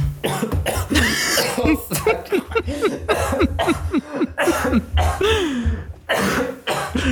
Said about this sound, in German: Gesundheit. Äh, fuck, ich habe mich gerade übelst verschluckt. Ich weiß nicht wieso.